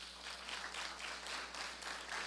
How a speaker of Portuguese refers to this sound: Aplauda o Senhor, meu irmão.